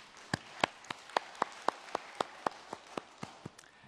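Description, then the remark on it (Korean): A church audience claps in unison after a prayer, giving glory to God for the new week, about a dozen sharp, evenly spaced claps in a quick steady rhythm that stop abruptly, with no voices over them. “새 한 주간을 주신 우리 하나님께 큰 영광의 박수를 드리겠습니다.”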